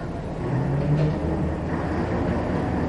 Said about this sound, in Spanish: Y dicho esto, el autobús se marchó.